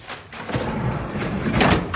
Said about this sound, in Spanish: Cierra con una llave que le da a Cero. Cierra una segunda puerta y gira la rueda de combinaciones.